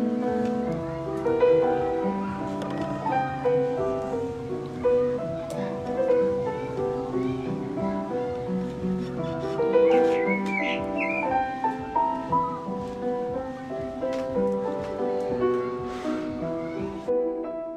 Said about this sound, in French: C'est très joli, c'est une très jolie chanson. c'est assez classique, quoi.